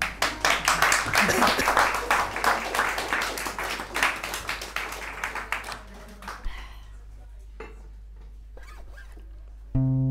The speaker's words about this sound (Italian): bravissima un bel applauso